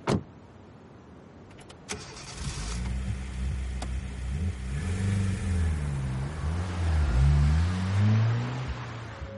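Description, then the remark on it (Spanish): A car door thuds shut as Luke gets into the car, then the engine starts and revs up, its low pitch rising and falling as the car pulls away and accelerates through the streets of Paris. No one speaks. “Luke sonríe, tira el pitillo y sube al coche.”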